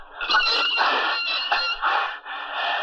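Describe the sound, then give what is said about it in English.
A heavy door is pushed open with a long, strained groaning creak, rising and wavering in squeaky pulses for about three seconds, fairly loud, with no voices. “Help me push the door open.”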